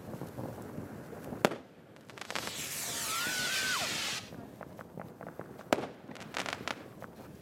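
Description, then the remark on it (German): A firework rocket whooshes upward with a rising, hissing whistle for about two seconds, framed by sharp loud bangs and scattered crackling pops from other fireworks going off outdoors. “Okay, jetzt Achtung, jetzt kommt das Feuerwerk”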